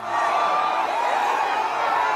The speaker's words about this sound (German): Die Anhängerinnen des linken Kandidaten für die Präsidentschaftswahl, dem Ex-Präsidenten Lula da Silva, bejubeln hier Lulas Sieg im ersten Wahlgang.